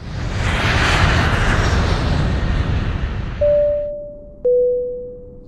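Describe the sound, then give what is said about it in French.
A broad, loud jet-engine roar of an airplane taking off fills the first few seconds, then fades away, followed by two steady electronic chime tones, one after the other. “vous êtes enfermé avec nous dans l'avion, et l'avion vient de décoller, c'est trop tard, vous pouvez plus, vous pouvez plus descendre, et, et voilà, et nous allons maintenant décoller.”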